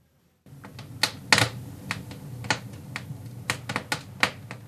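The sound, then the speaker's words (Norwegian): Wood crackles and pops in a home fireplace in Greece in winter, sharp irregular snaps of varying loudness over a steady low rumble of flames, with no voices. “Det knitrer og spraker i peisen for mange kjærkommen vinterkos.”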